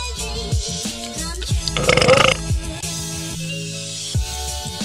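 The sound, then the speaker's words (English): One loud, close burp rumbles out in the middle, lasting about half a second, over steady background music with no one talking. “Are we, are we doing burps now?”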